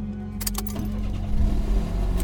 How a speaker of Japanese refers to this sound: 運転席の天沢はシートベルトを締めエンジンをかけた